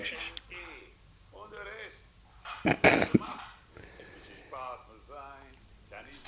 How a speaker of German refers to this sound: Warte mal, der Hund.